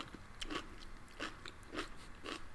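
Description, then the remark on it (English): Crisp crunching of food being chewed, with four or five distinct bites landing at a steady, unhurried rhythm against quiet background noise. “we can hear you crunching I can totally hear you chewing”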